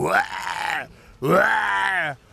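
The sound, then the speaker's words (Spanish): A person voices two drawn-out, throaty growls in imitation of a tiger. Each is loud, rising and then sinking, with a short pause between them and no other talk. “Y el tigre, por pues, miró al elefante y le gruñó también.”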